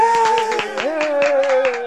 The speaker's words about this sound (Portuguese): Aplausos.